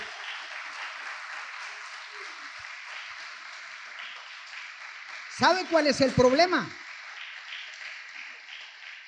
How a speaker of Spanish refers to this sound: Si es para Dios, tiene que ser más fuerte ese aplauso.